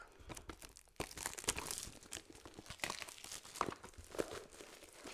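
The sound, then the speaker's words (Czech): A knife slices and tears through crinkly plastic packaging around a deck of meditation cards, with repeated scraping, crackling and ripping bursts and no talking. “Takže já teda beru kudlu a kudlou se snažím tady dostat do těch kartiček.”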